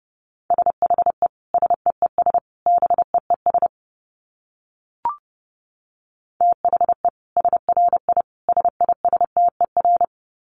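Morse code tones at 30 wpm: a steady mid-pitched beep keyed into fast dots and dashes, in two bursts split by a pause with a single faint click, and no voices.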